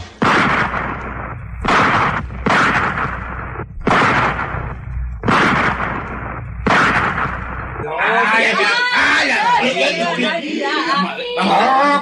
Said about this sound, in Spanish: Pusieron una tabla como a 30 bar y apuntó bien, amigo. Disparó sus seis tiros de un solo.